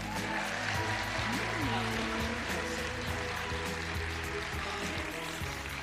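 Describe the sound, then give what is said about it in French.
An audience breaks into sustained applause, a dense, steady wash of clapping that holds for about six seconds, with murmured voices faintly underneath. “Euh, est-ce qu'il y a des gens qui ont déjà écouté 4 quarts d'heure par applaudissement”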